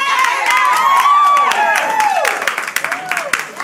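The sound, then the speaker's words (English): A crowd cheers loudly for the men, with many overlapping voices whooping and rising in pitch over scattered clapping. The noise stays dense at first, then thins into separate claps and shouts. “It was like under the, like you should just, just, just, just like we were cheering you women, we, we need to be cheered.”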